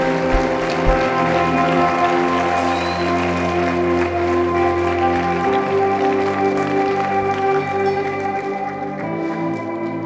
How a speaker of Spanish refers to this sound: Vamos, ese aplauso es para Él. Pienso que merece un aplauso todavía mucho más grande.